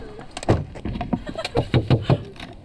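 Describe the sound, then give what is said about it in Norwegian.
A shop door is pushed shut with a solid clunk followed by a quick run of rattling knocks and latch sounds, while faint voices murmur in the background. “Lukk døra.”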